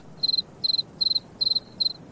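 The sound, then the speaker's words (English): A cricket chirps at night by rubbing its wings together, in a steady rhythm: five quick trilled bursts evenly spaced, each made of several rapid pulses, clear against a quiet background. “And this time, he chirped the most beautiful sound that she had ever heard.”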